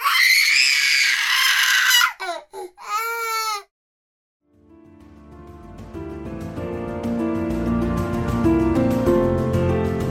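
baby crying

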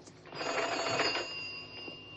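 telephone ringing

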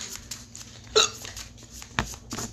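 hiccup

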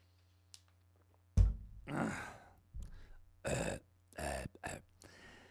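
drinking water

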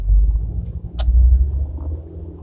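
car driving

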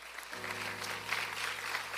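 audience applauding

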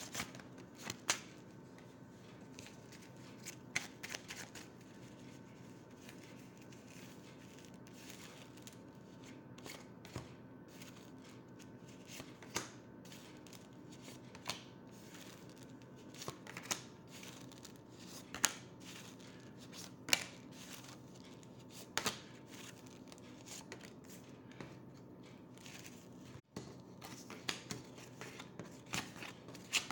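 shuffling tarot cards

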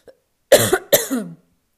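cough

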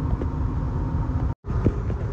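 car interior road noise

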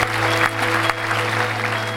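applause

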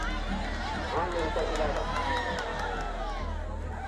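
spectators cheering

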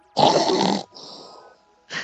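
person snoring

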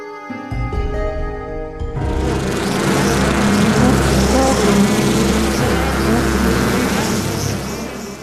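swarm of bees buzzing

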